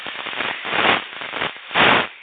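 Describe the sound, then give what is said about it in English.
Harsh crackling static fills a muffled, narrow phone line, popping and hissing continuously with two louder surges of noise. No one speaks over it. “What's all that static?”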